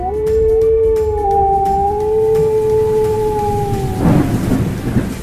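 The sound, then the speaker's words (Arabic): A wolf lets out one long, steady howl that wavers slightly in pitch, carried over a constant wash of heavy rain and rumbling thunder, with a louder crackle of storm noise at the end. “بينما بقي الذئب سامي يصرخ ويطلب من القمر أن ينير له حتى يتمكن من العودة هو أيضا إلى بيته ولا يضيع في العاصفة”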